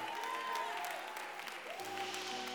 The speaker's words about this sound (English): Let's just celebrate salvation with an audible sound, clap, a scream, something. Let's just celebrate. Salvation is real.